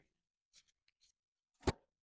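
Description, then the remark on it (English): Shuffling of a deck of question cards: a few soft, papery rustles followed by one sharp, louder slap of the deck, with no voices. “I'm not good at shuffling”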